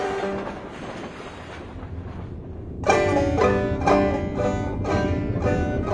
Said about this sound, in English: Pretty soon, there was a subway going back and forth underneath the little house. She couldn't see it, but she could feel and hear it.